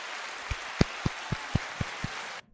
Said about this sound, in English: Thank you, thank you, thank you. Good shit. We said hold applause already.